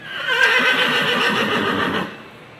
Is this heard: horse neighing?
yes